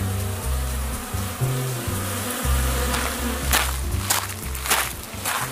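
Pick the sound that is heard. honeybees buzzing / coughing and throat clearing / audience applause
honeybees buzzing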